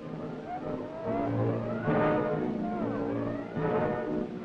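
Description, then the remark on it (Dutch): Heavy mechanical rumble of naval guns being loaded on the fire controller's order, a steady droning machinery noise with two louder surges of grinding clatter partway through, with no voices. “Aan het lawaai bij de kanons weten wij dat de vuurleider heeft laten laden en nu wacht op het rapport dat alles klaar is.”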